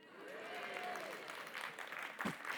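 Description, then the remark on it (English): An audience bursts into steady applause, a dense wash of clapping with a few cheering voices and a whoop rising over it, continuing throughout. “I thought I might get a woo, but I wasn't expecting the applause.”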